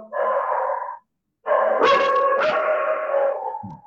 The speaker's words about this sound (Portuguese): Quem está falando é o seu cachorro.